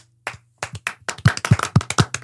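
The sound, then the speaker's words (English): Hand claps start sparse and hesitant, then quicken into a brisk, steady round of applause, sharp, with no voices over it. “You hear a smattering of and soon turns into a roar of applause.”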